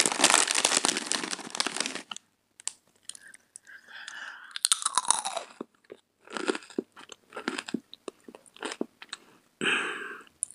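Crunching and chewing of potato chips, opening with a loud crinkly rustle, then irregular bursts of crisp bites and munching separated by brief pauses, with no talking.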